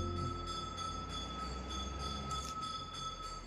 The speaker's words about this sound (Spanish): Ya llegó el camión de la basura.